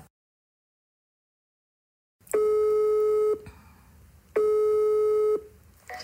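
After a silent start, an outgoing phone call rings with two long, steady electronic tones about a second each, separated by a short pause, clear and close with faint line hiss.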